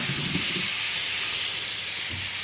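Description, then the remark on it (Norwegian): Butter and caramel sizzle with whole uncooked potatoes in a pan as the butter melts and the caramel clumps onto the potatoes, a steady hiss that runs unbroken throughout, with a few soft low bumps underneath and no voices. “Det som skjer da, gjerne, det er at karamellen den klumper seg litt mm. med en gang. Setter seg litt på potetene delvis. Mm. Så begynner smøret å smelte.”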